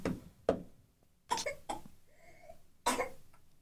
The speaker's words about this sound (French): Une petite toussette.